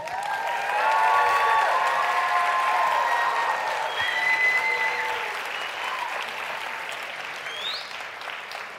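A crowd claps and applauds steadily, a dense wash of hand claps with scattered cheers and whistles rising above it, swelling early and then gradually tapering off.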